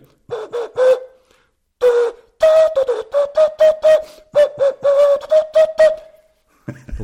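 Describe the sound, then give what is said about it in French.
Breathy, hollow whistling tones from air blown across the bevelled rim of a coffee cup, played as a quick series of short toots in two rhythmic phrases with brief pauses, fairly loud. “Et même la, tasse à café, il y sur le bord de la tasse, il y a un biseau”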